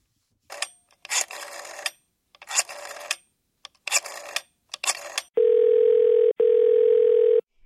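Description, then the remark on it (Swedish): A loud, steady telephone ringing tone for an outgoing call sounds twice in quick succession, each tone about a second long, after a series of short, noisy bursts of clatter. “Eh, men jag tänker att vi ska, eh, vi ska lyssna lite på hur det lät när jag ringde dem.”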